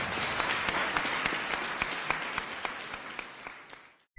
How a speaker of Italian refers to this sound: Ma insomma, eh, direi che l'applauso è arrivato appena un attimo prima perché in realtà ho finito, questo era quello che volevo dirvi.